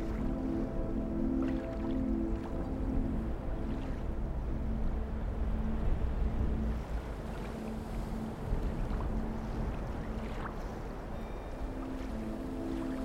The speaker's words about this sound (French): Vous entendez le bruit du sable qui se déplace avec lenteur et le clapotis des vagues.